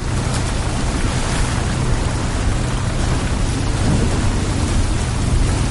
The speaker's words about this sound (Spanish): La tormenta está amainando, chicos.